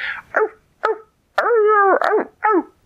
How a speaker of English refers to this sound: He just knew he had to be fast because he could hear the coyotes